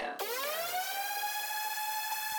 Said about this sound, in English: got a, a horn alarm, it's got the pauses.